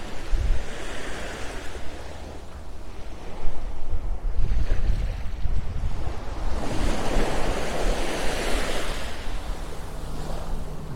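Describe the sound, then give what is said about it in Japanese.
Gentle morning ocean waves wash onto the shore at Hayama, Japan, in slow, repeating surges, a soft continuous roar that swells and recedes, with light wind noise and no voices, on a calm day of about 13°C with almost no people present. “葉山から朝の波音3分 LIVE”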